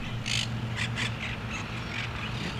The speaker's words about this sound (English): It's an oasis in one of the largest urban areas on Earth. Some may consider this a place of tranquility in the city, but then you hear the parrots.